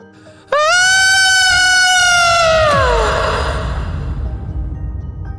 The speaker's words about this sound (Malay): suara macam orang menjerit bingit telinga ni dan jeritan tu terasa dekat sangat seolah-olah macam daripada belakang rumah yang berpaya tu walaupun waktu senja boleh dengar bunyi pelik-pelik tapi bunyi jeritan ni memang lain daripada yang lain